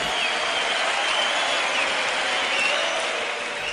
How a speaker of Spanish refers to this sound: Buen éxito para que vamos a que suenen esos aplausos por la mujer araña.